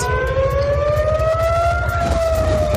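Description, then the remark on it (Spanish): Air raid sirens wail steadily across the south of Tel Aviv, Israel, a loud sustained tone slowly rising in pitch, with a low rumbling background beneath and no voices. “Las sirenas han sonado en el sur de la ciudad y también en otros lugares situados en el centro del país.”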